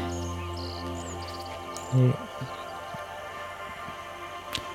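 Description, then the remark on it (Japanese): A steady analog synthesizer hum from a Korg Volca Keys drones continuously at low volume, its layered tones holding unchanged, with a brief louder murmur near the middle and a faint click near the end. “これもあのー、コルグの、えー、ボルカキーアナログシンセを使ってまして今後ろで本アンてなってるやつですよね”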